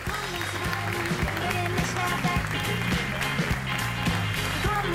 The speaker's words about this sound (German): Ich weiß gar nicht, ob Sie es äh, mit dem Applaus hören können.